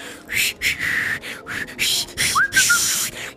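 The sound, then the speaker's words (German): A voice imitates a woman's airy, breathy whistling on a fairly full train: a run of hissing puffs of air, fairly loud, with only a brief thin tone breaking through near the end. “Der Zug war relativ voll und hat die ganze Zeit so psychomäßig gepfiffen.”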